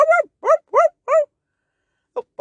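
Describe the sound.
A person's voice imitates a dog barking: four quick, evenly spaced bark-like syllables, then a pause and two shorter, fainter ones at the end.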